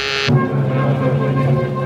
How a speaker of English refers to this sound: thinking about it when the call buzzer zizzed in my ear.